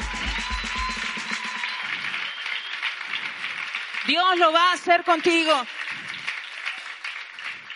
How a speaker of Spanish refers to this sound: Dale un aplauso al Señor en esta noche.